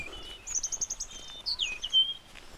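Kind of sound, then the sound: bird, birds chirping and singing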